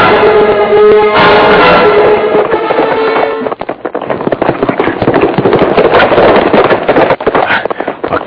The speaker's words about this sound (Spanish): Desgraciado, pasa un tiro. Le di, le pegué, se va ladeando sobre la motora, lo mandé al diablo.